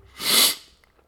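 A single sharp sneeze, close and fairly loud, bursting out in a breathy hiss that swells and fades within about half a second, with no talking around it.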